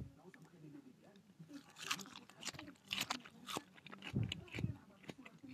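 Crunchy food being chewed ASMR-style, with a steady run of sharp, crackling bites and crunches in an uneven rhythm, some louder bursts standing out toward the end.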